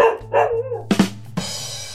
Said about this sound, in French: Le chien ne leur est pas d'une grande utilité, puisqu'il ne renifle rien et ne ferait qu'aboyer de tristesse.